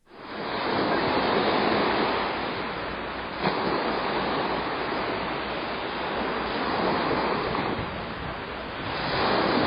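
Steady rushing surf with waves washing onto the shore, a continuous broad hiss that swells and eases, rising again near the end. No voices.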